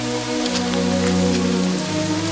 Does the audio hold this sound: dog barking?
no